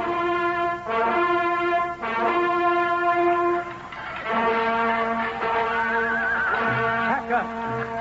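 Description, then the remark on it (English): Loud, shrill horse whinnies ring out one after another during a battle at Philippi, layered and overlapping in a steady din, with a rising, wavering cry near the end. “Ground beneath the horses' hooves”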